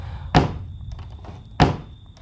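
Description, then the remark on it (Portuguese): Two firm knocks on a window, spaced about a second apart, each a short sharp thud, with a faint steady hum in the background and no voices. “Na data combinada, a moça ouviu batidas na janela.”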